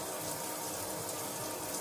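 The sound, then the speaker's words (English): Steady running water pours continuously from a shower that was not turned off properly, a broad hissing spray, fairly loud with no voices. “Can't even close your shower properly, beta.”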